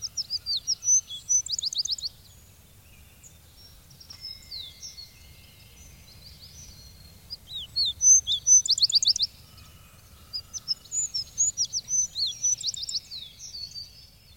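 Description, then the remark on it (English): A Canada sparrow sings soft, sweet, high warbling phrases in several bursts with short pauses between them, over a faint low background rumble. “This day, for the first time, I heard the song of the Canada sparrow, a soft, sweet note almost running into a warble.”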